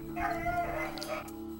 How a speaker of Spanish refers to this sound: Son perros. Perros. ¿Por qué? Porque los perros ladran en la noche.